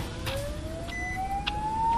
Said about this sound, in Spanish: Prisa, mucha prisa. Ni siquiera hay tiempo para dar nombres y documentación en el aeropuerto. Ambulancia a toda velocidad.